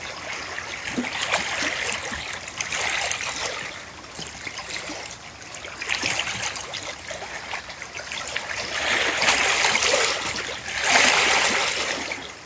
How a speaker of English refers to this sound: Taking in the song of the water this morning. It's always different. A new song, not only every day, but throughout the day singing new songs, new tunes.